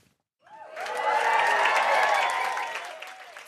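A large crowd of celebrities breaks into loud, sustained applause mixed with cheers and whoops as Kygo enters the catwalk in Oslo at the launch of his first clothing collection, Kygo Design, starting suddenly after a brief silence and holding steady throughout.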